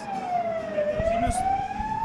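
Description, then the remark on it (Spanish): An ambulance siren wails steadily, its single tone sliding slowly down and back up as it passes, loud over a rumbling road background with a few low thumps. “disculparán el ruido, es que acaba de pasar una ambulancia”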